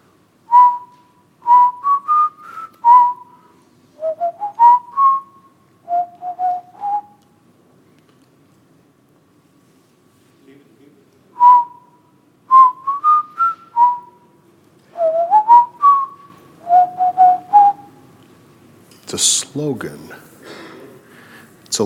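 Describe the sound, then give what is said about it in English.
The Army recruiting jingle melody "Be all that you can be" is whistled clearly, in bright stepwise phrases that repeat twice with brief pauses between them, ending in a noisy burst. “And um, it kind of, it was a little jingle.”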